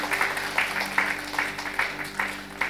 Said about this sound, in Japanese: 神様の本当に祝福素晴らしいですね。神様に拍手しましょう。